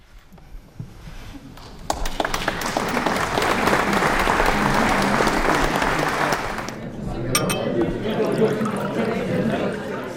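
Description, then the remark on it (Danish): After a couple of seconds of near silence at the end of a quiet music performance, an audience bursts into dense, sustained applause that holds steady, then thins out into scattered claps and murmuring voices. “Publikum er i tvivl. Er det nu, vi skal klappe?”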